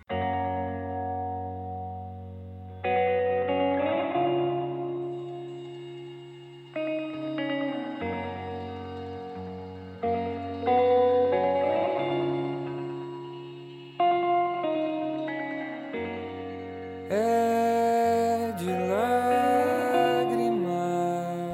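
A gentle, slow instrumental intro to the twelfth and final track of an album, with sustained chords changing every few seconds, bathed in heavy reverb and a shimmering chorus-like wash; no voices are heard.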